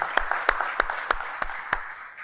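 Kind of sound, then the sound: crowd, audience giving loud applause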